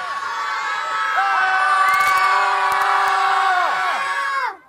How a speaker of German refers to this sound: Das ist so, wir stehen einfach vor dem Eingang, da können die Kinder so laut schreien, wie sie nur können.